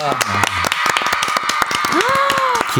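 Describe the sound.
A studio audience applauds with steady, dense, irregular clapping throughout, while a voice briefly calls out over it partway through; the applause marks a guest act's 17th year since debut.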